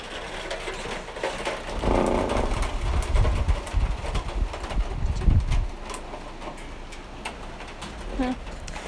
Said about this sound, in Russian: Да, это пошел град. Пошлите посмотрим на град.